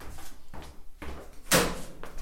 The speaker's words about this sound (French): Le bruit de la porte. Là, vous entendez mes pas. Voilà, une cabine téléphonique, la porte,